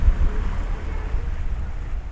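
Steady low engine rumble of a ferry under way from Körn and Rönning over to Åstol, with wind buffeting the microphone and a wash of sea and waves around it, continuous and fairly loud with no voices.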